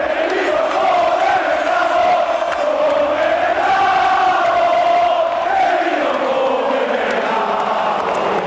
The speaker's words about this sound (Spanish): El resto del choque fue una auténtica fiesta en las gradas del viejo San Mamés, que entonaron un cántico para la historia.